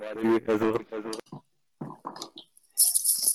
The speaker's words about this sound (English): I mean, I'm brushing my teeth, so you guys have enough to.